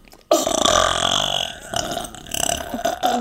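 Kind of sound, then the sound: human body sound, burp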